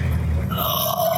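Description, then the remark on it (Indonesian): A person makes a low, rough growling sound with their voice, imitating an animal; one sustained, gravelly growl lasting about a second, fairly loud. “geram itu ah, iya iya geram, manusia ah, geram.”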